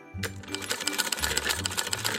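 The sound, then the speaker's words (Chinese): A sewing machine stitches in a fast, steady clatter of needle strokes over a low motor hum, running continuously for a couple of seconds with no voices, used for tailoring jobs such as embroidering student numbers, sewing on buttons, mending zippers and altering sizes. “无论是绣学号，或是缝扣子，甚至是补拉链、改尺寸，只要能多接一个工作，让两姐妹顺利读书长大，”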